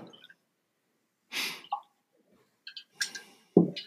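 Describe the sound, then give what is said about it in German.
Quiet handling of a bottle and glass as someone pours themselves a drink: a short hiss, a few hollow glugs and clinks in separate bursts, ending on a heavier knock, with no one speaking. “Ähm, da schenke ich mir erstmal eben ein ein für.”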